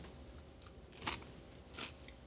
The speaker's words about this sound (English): But Excuse me. While I'm chewing, I've been eating this entire time. You didn't know that.